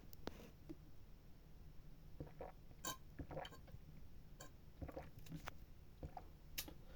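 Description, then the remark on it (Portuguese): Quiet handling sounds as someone drinks water: a few sharp clinks of a glass and soft wet swallowing noises scattered over several seconds, with no talking. “Calma aí, calma aí que eu vou tomar água.”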